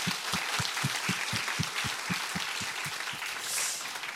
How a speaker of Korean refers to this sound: 이 모든 열매를 주신 하나님께 다시 한번 영광의 박수를 드리겠습니다.